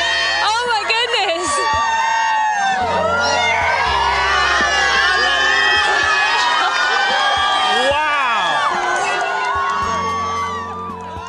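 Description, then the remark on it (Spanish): A large crowd erupts in sustained cheering and shouting at the moment of totality of the total solar eclipse of 21 August 2017 in the central United States, as broadcast by NASA; many overlapping voices whoop and yell excitedly at a steady loud level before tapering off slightly at the end. “Y este sonido es el que retransmitió la NASA en el momento exacto de la totalidad.”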